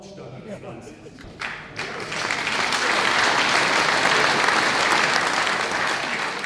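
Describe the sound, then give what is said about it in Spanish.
Audience applause at a 2017 political speech by Björn Höcke of Alternative for Germany (AfD), after his remark about the Holocaust memorial in Berlin, starting with scattered clapping and a voice, then swelling into sustained, dense applause from a large crowd that holds steady to the end. “Los aplausos son para Björn Höcke, líder del ala más radical de la ultraderecha de Alternativa para Alemania, AFT, Höcke dijo esto en 2017 sobre el monumento conmemorativo del Holocausto erigido en Berlín.”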